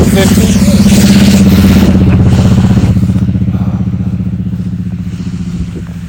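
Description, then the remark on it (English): A Subaru car engine roars loudly with a deep, throaty growl like a race car, then gradually eases off and fades as the noise trails away. “Even the Subaru thinks it's a race car.”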